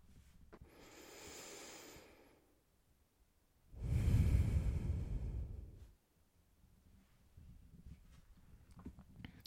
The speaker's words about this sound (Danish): Og så må du gerne tage fem gode, dybe vejrtrækninger helt ned i maven.